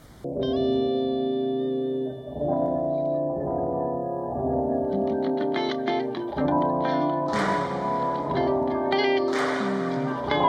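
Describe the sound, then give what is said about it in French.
A short stretch of electronic music with sustained, heavily effected synth chords and distorted, chorus-laden tones, shifting every couple of seconds, with bright crackling bursts near the end; no talking. “Euh, on va embrayer sur un petit intermède euh, musical sélectionné par Souzaï du staff.”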